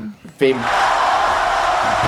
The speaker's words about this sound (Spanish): ¡Bravo! El aplauso.